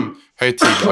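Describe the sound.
A man speaks briefly, pauses, then lets out a single loud, abrupt sneeze, a harsh burst of breath and voice that cuts through the talk.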